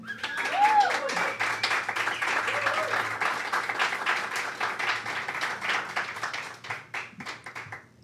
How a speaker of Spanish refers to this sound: Tenemos gente online, tenemos gente aquí. Eh, ¿Les está gustando? Sí, otro aplauso, por favor.